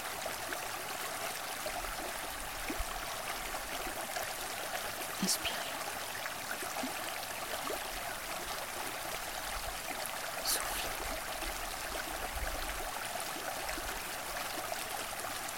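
A stream runs steadily with a continuous bright, splashing rush of water, unbroken for the whole stretch, with a few faint clicks and no voices.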